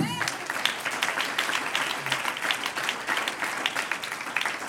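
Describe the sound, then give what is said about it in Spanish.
A church audience breaks into sustained applause for the Lord during a sermon, a dense, steady wash of many hands clapping at once with no pauses, holding at an even, fairly loud level throughout. “Un aplauso al Señor.”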